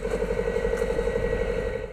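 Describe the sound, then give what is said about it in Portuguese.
An engine runs steadily at an even idle, its low rumbling drone and constant hum holding level throughout with no speech. “Nem o calor para o motor.”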